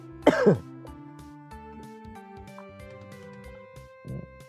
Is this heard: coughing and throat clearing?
yes